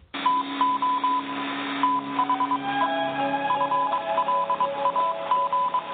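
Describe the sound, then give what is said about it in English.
Rapid Morse code beeps, a steady high tone keyed into quick dots and dashes, running continuously over a hissy, radio-like background with no one talking. “Magic interview machine. One last time, Morse Codas.”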